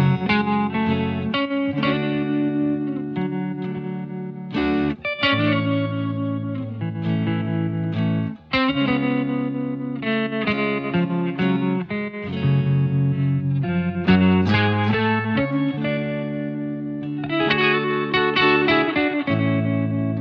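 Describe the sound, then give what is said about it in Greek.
The closing song of the film Parasite plays steadily and fairly loud: layered sustained instrumental chords with a full, slightly effected tone, moving through changes with brief pauses, and no one talking or singing. “Όλα όμως αυτή τη φορά ξεκινούν με το τραγούδι «Τέλους» της ταινίας «Παράσιτα».”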